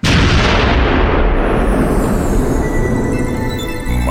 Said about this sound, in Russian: Зато на Конституции чтут традиции Каждый день на рассвете выстрел из пушки